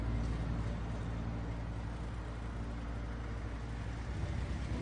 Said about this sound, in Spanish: Roberto frena en un semáforo.